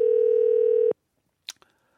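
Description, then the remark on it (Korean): A steady, loud telephone tone as an anonymous caller is connected on Park Myung-soo's Radio Show holds for just under a second, a single mid-pitched hum with harmonics, then cuts off into silence broken by a couple of brief soft clicks. “이것도 익명으로 한번 전화 연결하겠습니다.”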